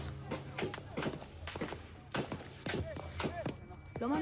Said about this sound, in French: ce bruit qu'on entend, c'est le bruit des balles.